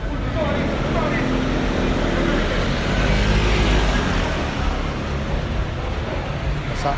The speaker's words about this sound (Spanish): una moto, dos motos, un camión.